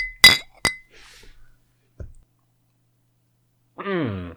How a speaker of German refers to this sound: Wollen wir mal anstoßen? Auf das, was es wert ist. Ja, lass uns anstoßen. Auf das, was es wert ist.